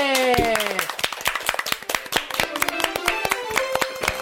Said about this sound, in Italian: Applausone!